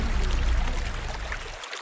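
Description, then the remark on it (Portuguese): Water in a stream at the village of Rula rushes steadily, a stream whose water is an ingredient of the local beer; a dense continuous gurgle and hiss with a deep low rumble beneath and no voices. “Volto à aldeia de Rula, onde a água da ribeira é um dos ingredientes da cerveja.”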